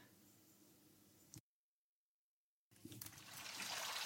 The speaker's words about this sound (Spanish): Estamos aquí, al ladito de nuestra fuente preferida, y este agua está pues tomando oxígeno, pero no es el mismo agua.